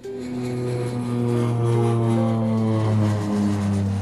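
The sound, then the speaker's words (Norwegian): A loud, steady airplane engine drone fills the whole stretch, its humming tones shifting slightly in pitch as the plane flies past, with no talking. “Men skal vi si ha det, ha det bra til den rare japaneren og fly videre?”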